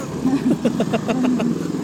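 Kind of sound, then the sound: vehicle, motorcycle passing by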